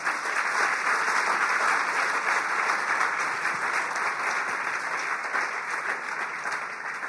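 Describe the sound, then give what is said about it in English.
During a church sermon, an audience claps for the Lord steadily for about seven seconds, a dense, even wash of many hands with no voices standing out, holding its loudness before easing slightly at the end. “Can you give the Lord a clap of it?”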